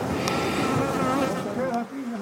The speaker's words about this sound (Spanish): Una vez que abrieron el hueco, miles de abejas llenaron el pequeño espacio del cuarto. La colmena había quedado expuesta. Era como si la pared estuviera viva. Hay más de 40.000 abejas. ¿Aquí? Sí. Aquí hay más de 40.000 abejas.